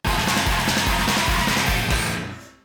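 A rock singer screams hoarsely over a loud, dense band with pounding, steady drums, the whole wall of sound sustained for a couple of seconds before quickly fading out.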